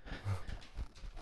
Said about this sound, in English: And your dogs are playing. This is good. It's like Noah's Ark here, but for cats and dogs only.